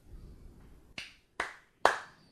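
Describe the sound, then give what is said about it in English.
Three sharp, loud claps ring out in quick succession, each a crisp snap imitating the jaws of a tiny-jawed, big-eyed deep-sea fish from the midnight zone snapping shut on the deck of a fishing boat, with a faint low rumble before the first. “Um, and they're named because when fishermen ne- neck them up and get them on the deck of their boat, they snap their jaws hard and just.”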